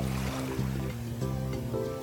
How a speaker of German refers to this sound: Und jetzt kommen die Wellen.